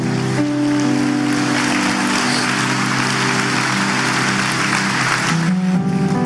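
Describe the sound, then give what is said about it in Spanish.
A crowd claps steadily and loudly for several seconds, giving applause to the Lord, a dense wash of applause with sustained keyboard or organ tones droning underneath, the notes shifting near the end. “Vamos, dele fuerte ese aplauso al Señor.”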